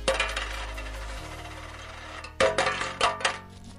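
A cascade of US quarters clatters and spills out of the opened, overflowing coin box of a prototype arcade game cabinet in a jingling rush, metallic clinks tumbling over each other, then a few louder bursts of coins dropping and settling near the end.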